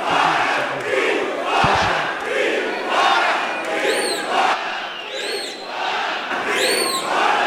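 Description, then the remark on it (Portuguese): A loud, continuous uproar of many overlapping voices in a plenary chamber during a vote, shouting and chanting together, with a few high whistles cutting through near the end. “Eu, tô, eu não reagi ainda porque o, o próprio plenário está, está falando.”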